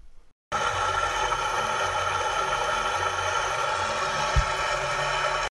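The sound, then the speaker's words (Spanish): Steady rushing water flows without pause, a dense hiss like a stream running over rocks, starting after a brief quiet moment and continuing evenly to the end. “Con el hermoso sonido del agua, les doy la bienvenida amigos a este podcast”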